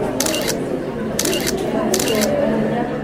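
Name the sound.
camera shutters clicking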